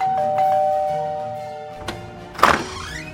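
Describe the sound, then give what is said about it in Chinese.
A doorbell at a fifth-floor door sounds as a steady, mid-pitched electronic tone held for over a second, then a short thunk and a brief, louder rattling clatter. No one speaks. “福尔摩斯一口气奔上五楼，按铃叫门。”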